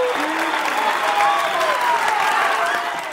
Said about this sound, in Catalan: Espera, posaré una mica d'aplaudiments així en postproducció.